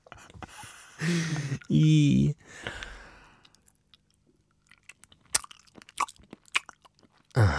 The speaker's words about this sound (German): Und das möglichst nah am Mikrofon, damit es so ein Schmatzgeräusch gibt.